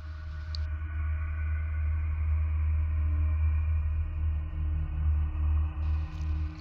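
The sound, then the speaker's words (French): Radio pulses from Jupiter's moon Io, compiled by NASA engineers and rendered as sound: a steady, deep rumbling drone with faint humming tones layered above it, plus brief hissy flickers at the start and end. “c'est une transcription sonore des impulsions radio envoyées par les planètes les plus lointaines du système solaire et compilées par les ingénieurs de la NASA”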